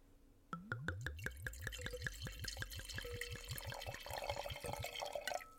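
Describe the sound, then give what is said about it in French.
Pinot noir rosé wine glugs steadily from a bottle into a glass, a quick run of rhythmic gurgles that rises in pitch as the glass fills. The pour is clear, with no talking over it. “ouais, fait que là, je vais te le verser.”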